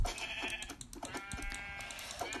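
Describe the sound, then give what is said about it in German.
A video game sheep bleats in short repeated cries, clear, over a busy layer of game noise and clicking sounds with no talking, as the player tries to kill it for wool. “Oh, ich versuche gerade hier einen Schaf für Frame für Frame zu killen.”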